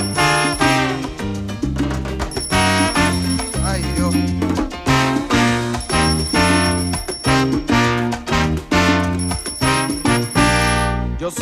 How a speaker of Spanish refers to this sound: y suena el timbre, rin rin